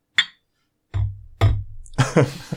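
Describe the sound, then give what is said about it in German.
A single short, bright clink of beer glasses filled with dark Schwarzbier rings out in a toast near the start and fades quickly, followed by voices and some low rumbling handling noise. “Dann sage ich mal Prost,”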